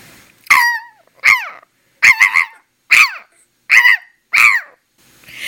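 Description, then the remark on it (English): A voice imitates a tiny dog barking, six sharp high-pitched yaps in a loose, uneven rhythm, loud, with short silences between them. “off late, I've been visiting Sui Ann's house, who's a storyteller in Singapore, and she has a tiny little dog, and that goes.”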